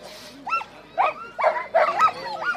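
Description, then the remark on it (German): Sled dogs bark and yelp excitedly in quick, overlapping bursts at the start of a race, harnessed to a four-wheeled rig whose brake is dug into the grass, several animals with high, wavering cries rising and falling and no voices over them. “Und wenn er die löst, wissen die Hunde, alles klar, jetzt geht's los. Das ist hier Wahnsinn gerade zum Start.”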